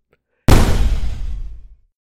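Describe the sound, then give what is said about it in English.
A tank cannon mounted above the cabin of a wrecker fires and blows up the lead car, a sports car: one sudden, loud boom that bursts in after a brief silence, then a roaring, crackling rumble fading out over about a second. “They fire off the tank cannon uh, mounted above the cabin.”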